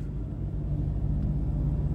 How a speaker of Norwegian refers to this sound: Vi sitter i en bil